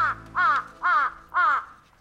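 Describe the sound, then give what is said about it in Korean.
A crow caws four times in a steady, evenly spaced rhythm, each call harsh and fairly loud, with no other voices around. “다음 날부터 까마귀 우는 소리에 맞춰 용호를 찾아다녔습니다.”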